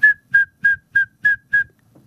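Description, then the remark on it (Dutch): A male frog's answering whistle call to another male: six short, clear whistled notes repeated at a steady, quick rhythm, fairly loud, with faint low rumbling between them and no talking. “En dan is er een ander mannetje en dat zal antwoorden.”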